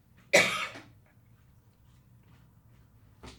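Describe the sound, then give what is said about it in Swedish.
A single sharp cough bursts out near the start, followed by quiet room tone and a faint second rasp at the very end. “När jag hostar så brukar jag spy ibland så att om ni hör något konstigt så är det bara jag som kräks i eh, soptunnan.”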